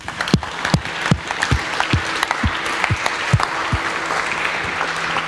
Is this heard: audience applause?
yes